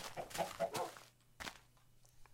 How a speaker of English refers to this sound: Oh, man, are these chickens despawning? I don't hear them anymore. What is... What's up with the chickens in this video game? Oh, there's one. There's one.